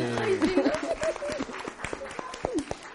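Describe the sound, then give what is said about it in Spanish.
An audience applauds with a dense patter of many hands clapping, steady throughout, while voices call out and cheer over the clapping, for a four-year-old girl who answered a question by herself and is given a book. “Un aplauso, por Aplauso grande.”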